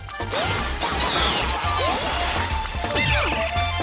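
Video game music with a pulsing bassline plays steadily while swooping, chirpy sound effects and clattering hits pop up over it, busy and fairly loud throughout, with no one talking.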